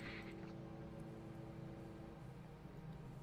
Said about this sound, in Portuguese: Eu acho que deu para ouvir a moto passando no pântano, né? Vocês com certeza ouviram isso.